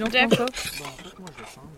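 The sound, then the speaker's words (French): Plates and cutlery clink together in a short clatter as diners hand over their plates to be served duck, with people talking over the clinking. “Allez, vous me donnez vos assiettes pour le canard.”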